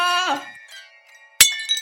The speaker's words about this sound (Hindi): आवाज आई तुझे देख देख देख किचन में देख कितने सारे बर्तन गिरा रहा है वो आई टोल्ड यू यार पहले भी इस घर में भूत है